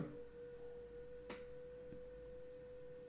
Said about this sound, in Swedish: Vad fan som låter? Ja, förlåt, det är någon som håller på att borra här.